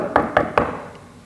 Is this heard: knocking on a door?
yes